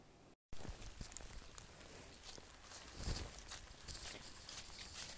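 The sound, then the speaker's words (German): Footsteps crunch along at an unhurried, steady pace while walking the dog Hühnchen across a meadow in the rain, with a constant soft hiss of open air behind them and no one speaking. “So wie man hören kann, bin ich gerade mit Hühnchengassi.”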